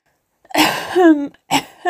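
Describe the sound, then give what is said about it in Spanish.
A person imitates a cough, with two rough, breathy coughing bursts, the first ending in a drawn-out voiced rasp. Loud, with no other sounds around it. “dijo el cohete y empezó a toser.”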